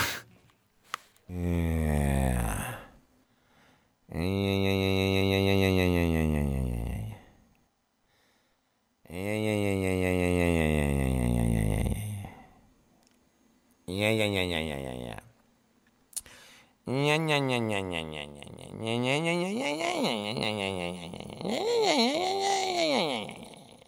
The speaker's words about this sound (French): Mais on va juste écouter une improvisation de poésie sonore pour vous donner une idée de ce qu'il fait à la base.